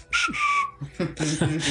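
A person whistles one short, clear note that glides slightly downward, followed closely by a burst of loud voiced vocal sounds, all close to the microphone.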